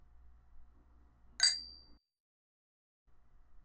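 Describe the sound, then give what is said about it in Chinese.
A single bright clink of glasses of red wine touching in a toast, sharp and ringing with a brief high-pitched tone that fades quickly, set against a low background hum with no talking. “来吧，干杯。”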